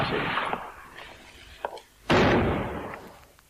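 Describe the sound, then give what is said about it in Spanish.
A door slams shut with a sudden, loud, booming impact that rings out and fades slowly, after a stretch of softer rumbling and a faint knock just before. “Bueno, ahí da el portazo.”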